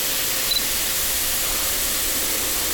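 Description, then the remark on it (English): A steady, unbroken hiss of grain silo machinery in a town fills the air, bright and airy with a low rumble underneath, continuing evenly throughout with no voices. “getting closer to that grain silo now.”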